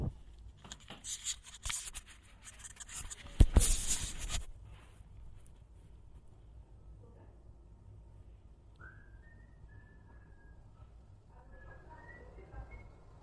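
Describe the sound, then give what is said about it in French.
Rustling and fumbling handling noise from a microphone being stowed, with a sharp loud scrape around the middle of the commotion, then a quiet lull with faint whistling tones. “Je range le micro.”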